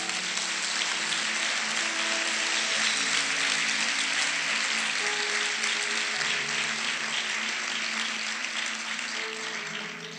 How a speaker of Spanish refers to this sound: ¿Por qué no le damos un aplauso a Dios por eso?